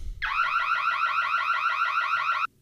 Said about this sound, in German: Hierbei handelt es sich natürlich um eine Einbruchmeldeanlage, hat jeder schon mal gehört. Sie bildet das Fundament für die Unternehmenssicherheit und äh, wird mit verschiedenen Sensoren betrieben.